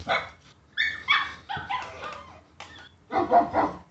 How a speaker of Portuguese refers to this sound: Passava da meia-noite quando Fábio acordou com o barulho dos cachorros latindo.